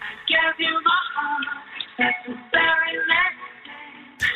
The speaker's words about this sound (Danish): Nå, han er begyndt at høre øh, julemusik allerede.